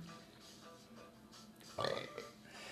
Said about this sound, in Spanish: Ah, es que estoy con hipo.